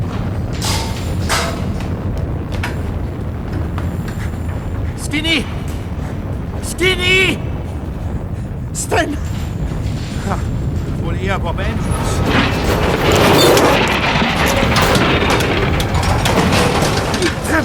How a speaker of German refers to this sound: Dann hat er die Böller gezündet.